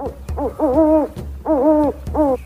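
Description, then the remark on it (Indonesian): A snowy owl hoots in three loud bursts, each a few short notes running into a longer wavering hoot, over a low steady rumble. “Aku bukan burung berbintik, aku si burung hantu salju.”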